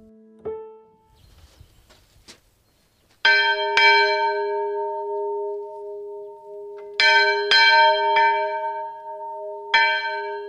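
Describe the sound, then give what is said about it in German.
A small church bell hanging outside a small church at the open-air museum in Diesdorf, rung by pulling a long rope, its bright metallic strikes landing in uneven pairs and singles, each leaving a long humming resonance that hangs between strokes, fairly loud, after a few quiet thumps. “So klingt die Glocke, die außen an der kleinen Kirche im Freilandmuseum Diesdorf hängt. Dafür zieht Jochen Hofmann an einem langen Seil.”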